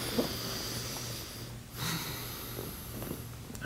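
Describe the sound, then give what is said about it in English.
A slow, deep breath drawn in and then let out as a deep-breathing exercise, a soft airy rush against a low steady hum, quiet with a brief pause between inhale and exhale. “And take a deep breath.”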